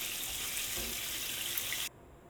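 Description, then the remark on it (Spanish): Browned rib pieces moved with a skimmer into a pot of water, a steady watery hiss with a couple of soft low plops, cutting off abruptly near the end; no one speaks. “Ya hemos dorado la costilla y ahora el siguiente paso es pasar los dados de costilla con la rasera al pote con agua que tenemos al lado, con mucho cuidado para que no nos salpique.”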